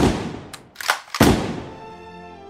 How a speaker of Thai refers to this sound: ยังไม่ทันสิ้นเสียงของอีกา ก็ได้มีเสียงปืนของนายพรานดังขึ้น